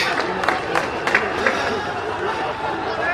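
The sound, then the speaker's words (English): A large crowd of Celtic fans cheers and shouts in a steady, dense roar, welcoming the Celtic team bus arriving for a home game, with brief louder bursts of yells rising above the din throughout. “Anyway, okay, you can hear the welcome.”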